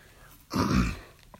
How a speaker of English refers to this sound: excuse me. I'm having trouble clearing my throat right now.